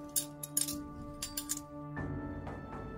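Metal instruments being prepared clink and rattle together in a few short bright bursts, separated by pauses, over a faint steady ringing tone. No voices are heard.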